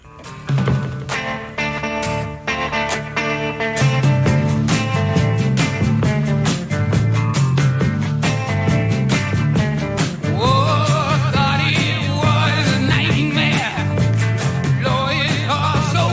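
A rock song plays from a recording, loud and steady, with a driving drumbeat and layered instruments; a singing voice with sliding notes comes in during the latter half.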